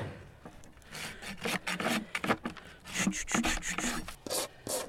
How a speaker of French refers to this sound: Donc après, on met un bon coup de râpe pour mettre le pied bien à plat.